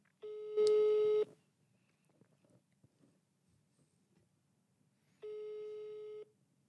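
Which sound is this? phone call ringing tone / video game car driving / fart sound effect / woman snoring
phone call ringing tone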